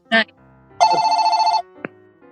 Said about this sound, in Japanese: 誰ですか電話鳴らして。おいやおすいませんスタジオの電話鳴りました。